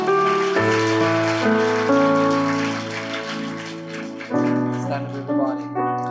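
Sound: audience applause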